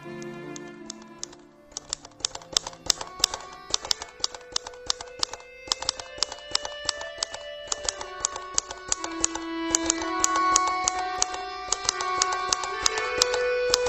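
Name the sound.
typewriter keys typing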